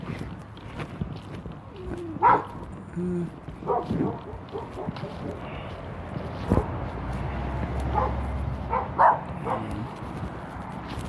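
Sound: dog barking angrily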